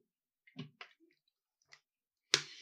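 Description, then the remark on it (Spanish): Someone takes a quiet sip of water, with a few soft wet clicks and a swallow, followed by a sharper breathy sound at the end. “Hablando de drink, voy a tomar un poquito de agua.”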